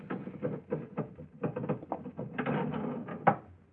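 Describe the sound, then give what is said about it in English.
A sticking elevator door being forced open, with a string of rattling clunks and scraping jolts over a few seconds, ending in one sharper knock. No voices. “I must speak to him again about this elevator door. Stick something terrible.”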